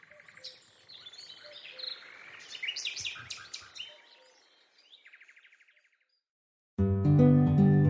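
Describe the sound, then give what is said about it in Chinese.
Many birds chirp and tweet in quick, overlapping high-pitched calls over a steady buzz of insects, with a short rhythmic trill near the end before a sudden loud burst of music cuts in. “叽叽喳喳的叫个不停”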